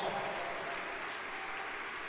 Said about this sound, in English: Oh, clap for the Lord.